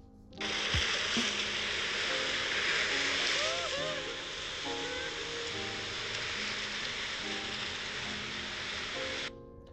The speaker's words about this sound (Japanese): なんかめっちゃ広い岩がもう裏のあの壁と足場も全部岩みたいなとこよね、うん、完全にもう海に面しててそうあそこでなんか波がザッバーンみたいなそうそうそうそうそうなっててあその音俺取ってきた皆さんにぜひお聞かせしたいんです